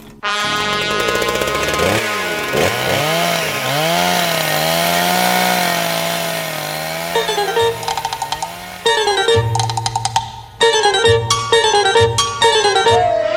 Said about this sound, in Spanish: Cortar con una motosierra el poste que sustenta la cámara.